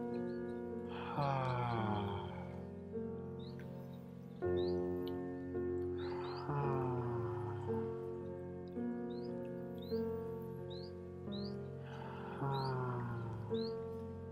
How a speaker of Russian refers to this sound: Мы это делаем обычно на выдохе, поэтому сейчас мы немножко постонем. Мы делаем вдох – и на выдыхание произносим легкий стон.